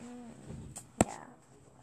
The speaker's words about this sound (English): yeah. that would be loud. You just hit the tablet. I tried to make a loud noise while slapping carpet. You just slap.